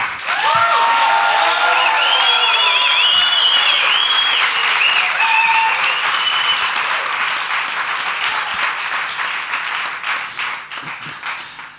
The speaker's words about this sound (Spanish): Ha sido un aplauso casi de victoria inesperada, ¿no?